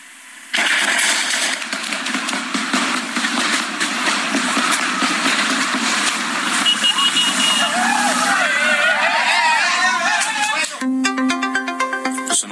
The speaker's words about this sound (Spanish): vamos a escuchar eh, prácticamente el momento en el que se escuchan los balazos que tiraron presuntamente desde el interior del cuartel de la Guardia Nacional.